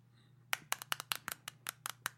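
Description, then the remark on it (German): A quick series of about a dozen sharp, hard taps on a Flick and Lick lollipop, irregular in rhythm, with no one talking. “Als kleiner Tipp, ich äh, klopf mal drauf.”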